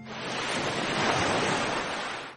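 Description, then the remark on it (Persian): Caspian Sea waves break and wash steadily onto the shore in a broad, continuous roar, fairly loud, swelling slightly in the middle before easing off, with no voices. “اما شاید این صدا خیلی هم با هم فرق نکنن راستش داشتم فکر میکردم علیرغم اینکه ساحل خزر از شرق تا غرب گوناگونی زیادی داره اما انگار صدای دریا همه جاش یه شکله”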